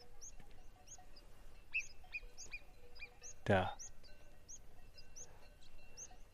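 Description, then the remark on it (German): Two marmots call with a steady series of short, high chirping whistles, fairly faint and far off, repeating throughout, heard while walking back down to a hut; a person briefly says a word partway through. “links von mir sind zwei Murmeltiere. Vielleicht hört ihr sie.”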